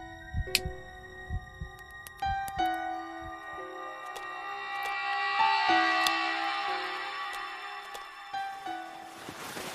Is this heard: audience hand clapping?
no